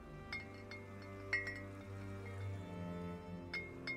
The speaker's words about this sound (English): I can hear the bottles on the breeze now, every day. I hung them all up on the big tree outside my kitchen window, and they sparkle and shimmer in the sun. I walk through them sometimes, tapping the glass and hearing them chime against each other.